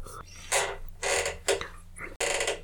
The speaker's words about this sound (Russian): Скрипит потертое седло.